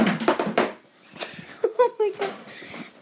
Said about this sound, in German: Der Stuhl ist runtergefallen. Bist du ein Baby oder warum schmeißt du noch deinen Babystuhl um?